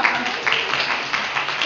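An audience of parents and local community members at a children's performance applauds a grandfather steadily, a dense, even wash of many hands clapping at once with no pauses and no talking over it.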